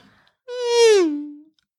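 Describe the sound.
A single voice imitates a Formula 1 car speeding past: one loud, buzzing, engine-like whine about a second long, its pitch sliding steadily downward as it fades, then silence.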